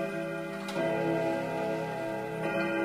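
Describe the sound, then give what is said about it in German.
A wall clock in the office of Mayor Christian Thieme strikes, two sharp chime strokes about two seconds apart. Each one rings on in a steady, resonant hum, with faint ticking beneath and no voices. “Im Amtszimmer von Oberbürgermeister Christian Thieme hat die Wanduhr geschlagen.”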